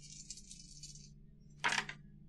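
A die rattles briefly in a hand or cup for about a second, then after a short pause lands with a quick clatter on a hard surface, rolling a six. No one speaks.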